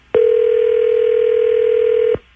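A single loud, steady telephone ringing tone sounds for about two seconds, starting and stopping abruptly, with no talking around it, as radio station B98.5 calls a listener.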